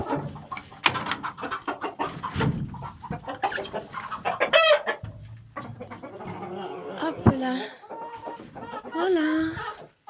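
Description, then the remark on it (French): Hens cluck and squawk in a busy, overlapping chorus as they come out of the henhouse through the opened trap door to scattered grain, with a rooster's calls rising among them as a second rooster comes down, and brief rustling as the birds move about. “deuxième coq vient de descendre.”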